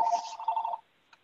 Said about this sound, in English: Sorry, I can't get the phone to turn off.